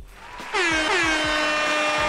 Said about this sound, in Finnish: töötti kovalla, herra Jesta.